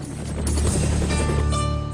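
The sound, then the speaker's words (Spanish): A helicopter drones, its rotor thumping in a steady, heavy low rumble with a constant engine whine layered on top, loud and unbroken throughout; one of two helicopters in Afghanistan bringing bread from Tajikistan. “La única manera de ayudar a esta gente era mediante dos helicópteros que tenía el comandante Masud”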